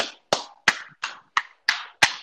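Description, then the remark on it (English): A single person clapping in a steady, even rhythm as a round of applause for Roy Williams, retired coach of the North Carolina men's basketball team: about seven sharp, bright claps roughly a third of a second apart, each ringing briefly before the next, with no voices. “I'm gonna give a round of applause”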